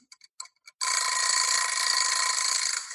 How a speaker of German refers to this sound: So. Das muss auch irgendwann wieder aufhören. Ich habe die Eieruhr hier nebengestellt, damit ich ähm, so ein bisschen auf die Zeit achte, weil ich verquatsche also. mich immer dann mal gerne.